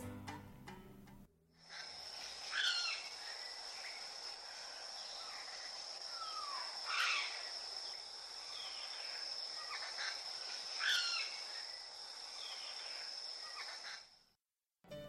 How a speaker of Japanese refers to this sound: キツツキってそんなにまあ派手には鳴きませんけど、えー、こんなこと言うのなんですが今まで取り上げてきた中で一番地味な鳴き声ですかね、えー、アフリカヤマゲラはキツツキ目キツツキ科の鳥です